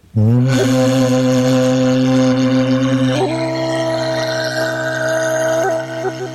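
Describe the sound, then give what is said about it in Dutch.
Throat singing with a whistled overtone, made by singing and whistling at the same time, the whistle formed in the corner of the mouth: a loud, steady, buzzing low drone held for about six seconds, with a thin high whistle riding above it that shifts pitch partway through. No talking. “het klinkt een soort keel didgeridoo of zo dat is het.”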